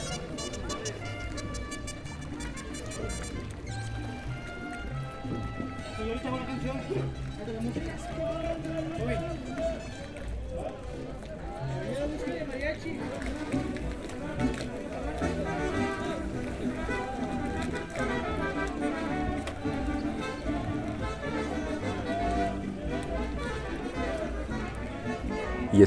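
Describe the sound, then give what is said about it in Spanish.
Busy street ambience in a town in Mexico: a steady, dense wash of voices and crowd chatter with footsteps and scattered street noises, continuous and fairly loud throughout. “que así suena México en algunas de sus localidades.”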